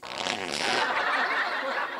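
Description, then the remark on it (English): A long, loud, raspy fart called the monkey claw, lasting around two seconds, with a steady sputtering rumble and no talking over it. “That's called the monkey claw because it feels like my colon is being ripped apart by a thousand monkeys.”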